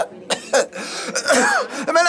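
A run of harsh, raspy coughs and throat-clearing bursts, fairly loud, coming in quick irregular spurts with strained vocal sounds between them.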